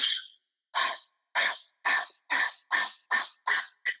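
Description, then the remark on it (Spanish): Nine quick, breathy rasping bursts in a steady, slightly quickening rhythm, fairly loud, imitating the panting of a running deer. No talking. “Entonces, cuando raspa la jiruquia, eh, quiere decir que es la respiración del venado, como”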